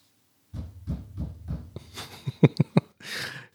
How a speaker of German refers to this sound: Klopf doch jetzt mal viermal, wenn du das hörst gerade.